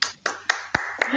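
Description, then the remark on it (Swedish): Five sharp hand claps at a steady, brisk rhythm, each one crisp and bright, with a short echoing tail trailing after every clap. “Jag vet inte om ni hör mina applåder som ekar här i bakgrunden”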